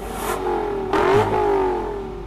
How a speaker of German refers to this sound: Sauger V8 ist immer doch irgendwie immer noch am besten.